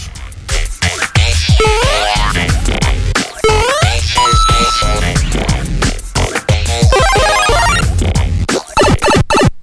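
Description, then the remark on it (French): A loud, busy string of Mario video game sound effects: bright electronic bleeps, quick sliding pitch sweeps and a few held tones tumble over each other for about ten seconds, with no voices. “Le petit bruit de Mario.”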